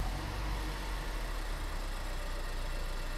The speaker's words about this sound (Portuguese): O carro começa a acelerar.